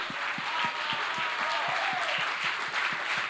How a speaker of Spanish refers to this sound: Si le va a dar el aplauso al Señor, dáselo.